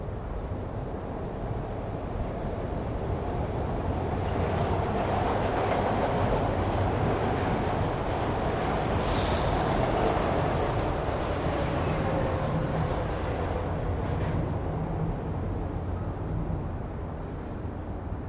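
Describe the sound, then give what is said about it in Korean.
A subway train runs steadily along the rails, a continuous loud rumble with faint rhythmic clatter and a brief high screech partway through, with no voices. “그는 마지막 흑백 필름 영화의 주인공처럼 전철 안으로 들어섰다.”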